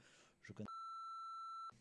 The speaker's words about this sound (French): Coupe le nom, tu biperas.